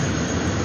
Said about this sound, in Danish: du hører, det er lyden af formand for repræsentanternes hus i USA, Nancy Pelosi's officielle fly, som ruller ind på landingsplanen i Taiwans største by, Taipei, i går sidst på eftermiddagen øh, dansk tid.